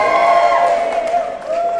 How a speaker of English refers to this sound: The biggest cheer.